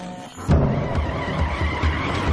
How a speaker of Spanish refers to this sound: Walter llega en coche al lavadero de Skyler.